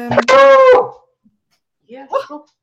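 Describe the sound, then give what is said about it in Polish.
A dog that has just woken up barks, one loud, drawn-out, whiny bark followed after a short pause by a quieter, broken yelp or two. “mój pies się obudził.”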